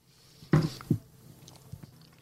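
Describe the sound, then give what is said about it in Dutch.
A crisp bite into a piece of sharp Bolle van Keuning cheese, followed by a second soft crunch, then a few faint wet chewing sounds fading into quiet. No one speaks. “En de eerste hap gebeurt er hier wat mee met je mond.”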